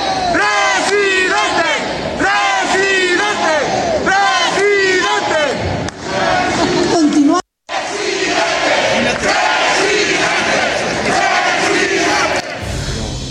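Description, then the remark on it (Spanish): A large crowd at an event in Guadalajara chants "Presidente!" in loud, rhythmic unison over and over for Monterrey mayor Luis Donaldo Colosio Riojas, then breaks into sustained cheering and shouting after a brief cut. “Lo ovacionaron y gritaron presidente.”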